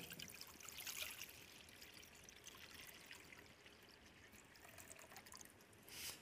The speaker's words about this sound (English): And then he takes a, a little bit of water and he pours it out into a bowl.